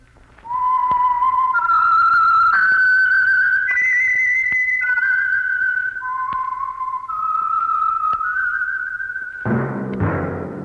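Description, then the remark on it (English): A lone, clear whistled theme tune of a dozen or so sustained notes, serving as a program's opening signal, climbs and then falls back, fairly loud with no talking, ending in a brief rush of noise. “That whistle is your signal for the Signal Oil Program, The Whistler.”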